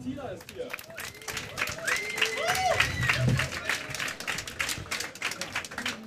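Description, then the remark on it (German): An audience applauds steadily for about six seconds as performers are welcomed onto the stage, a dense, crackling patter of many hands at a fairly even level, with a few indistinct voices calling out over the clapping. “Dann würde ich sagen, äh, Bühne frei, großen Applaus.”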